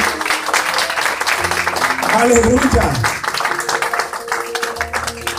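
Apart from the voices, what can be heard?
audience applauding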